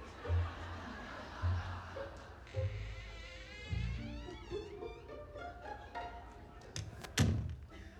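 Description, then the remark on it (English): A door shuts with a heavy thud, among several dull low thumps spread across the scene; bursts of giggling laughter rise in the middle, and a final sharp bang lands near the end. “And if you girls would kindly shut the door, you won't have to smell it anymore.”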